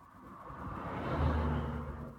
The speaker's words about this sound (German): Hier jetzt gerade ist es ein bisschen schwierig, weil ich direkt an der Straße stehe mit dem Auto. Das heißt, Stille ist auch hier eigentlich fast abwesend.